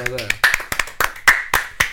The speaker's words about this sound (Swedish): Goddammit, applåd till honom.